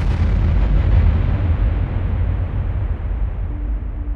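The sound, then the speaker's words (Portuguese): A huge, booming explosion sound effect depicting the Big Bang erupts at once and rolls on as a deep, sustained rumble, its roar slowly thinning over a few seconds without fully dying away. No voices. “O universo que conhecemos começou com a explosão de uma singularidade durante o Big Bang há 13,7 bilhões de anos.”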